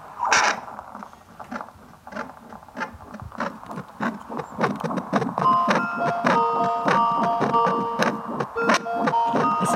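Rapid, steady whooshing thumps of a heartbeat picked up by a Doppler monitor, scratchy and static-laden, with a few faint electronic tones joining partway through, the device's melody signalling the rate is too slow for a baby. No one speaks.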